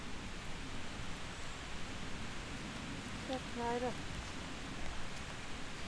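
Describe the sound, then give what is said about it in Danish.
Steady rain falls throughout, a dense, even hiss with no pauses, briefly joined midway by a faint, short tonal sound. “Men hvis vi lige skal fatte jordforbindelsen igen et øjeblik, så lad os både komme tilbage til regnværet, broen og vores hunde.”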